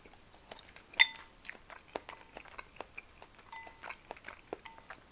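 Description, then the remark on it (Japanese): Someone chewing a lunch of leftover hotpot from the previous day, with various ingredients including meat, with soft, irregular wet clicks and crunchy bites, one sharper bite standing out early, continuing steadily and quietly with no talking. “いつになくお昼ご飯がボリューミーでかなりお腹いっぱいですね昨日の鍋の残りだからもういろんな具材が入ってるのよ肉とかも。”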